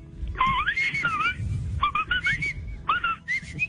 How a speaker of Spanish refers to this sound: No, es que es brillante, maestro. Gracias. Nos deslumbró. Eso no me lo esperaba. Gracias. Qué silbidos, qué silbidos.